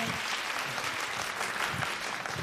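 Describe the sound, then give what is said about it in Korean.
Sustained audience applause at a special public broadcast of the show Joo Jin-woo Live, a dense steady patter of many hands clapping at an even level throughout, with no voices standing out. “다시 한번 박수.”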